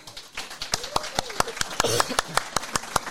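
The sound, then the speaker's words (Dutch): A small audience applauds to welcome a guest, with sharp, irregular claps in a steady patter of moderate loudness, while faint voices murmur and call out underneath. “Even een applaus.”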